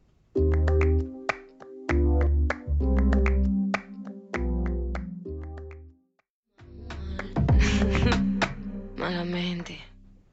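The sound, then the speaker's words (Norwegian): Sharp, crisp flamenco-style hand claps crack out in quick, syncopated bursts over a song with deep bass and a sung vocal line, briefly dropping out before the music returns. “Jeg digger den klappingen.”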